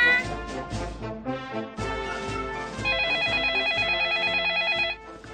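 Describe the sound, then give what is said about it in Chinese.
A telephone rings as a call comes in to a contest venue, with a bright, warbling electronic ringtone that repeats in quick pulses over a steady backing of upbeat music, with no one talking. “哦，大赛会场接到第一个来电了，会是谁呢？”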